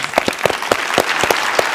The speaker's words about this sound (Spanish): Un aplauso a eso.